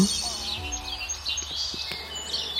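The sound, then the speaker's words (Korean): Several birds chirp and sing together in a steady, bright chorus of high warbling calls, continuous, over a low rumbling background with a few soft thuds. “자유를 얻은 기쁨을 노래하는 새들의 아름다운 노랫소리가 하늘에 울려 퍼졌어요.”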